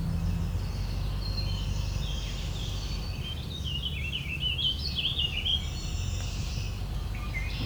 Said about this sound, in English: Picking up orchard oriole and warbling vireo. orchard oriole is here. It is singing.